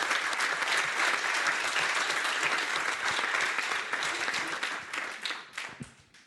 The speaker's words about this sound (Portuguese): Aplausos.